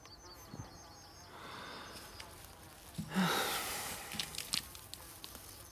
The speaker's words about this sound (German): Ach, da der Käfer. Hast du sowas schon mal gesehen? Insekten